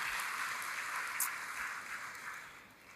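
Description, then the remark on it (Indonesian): A church audience applauds together for Jesus, a dense, steady wash of clapping from many hands that holds for a few seconds, then gradually thins and softens. “Oh tepuk tangannya boleh yang paling meriah buat Yesus Tuhan kita.”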